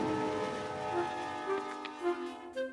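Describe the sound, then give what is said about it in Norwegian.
A train travelling to Sweden rolls along the rails with a steady, sustained metallic drone and ringing tones, plus a few brief swells and clicks near the end. No one speaks. “La oss si at vi tar med oss pt med Bobbys arvtakere og tar toget til Sverige.”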